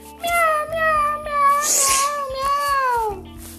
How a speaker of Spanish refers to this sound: Tengo cuatro gatos pequeños.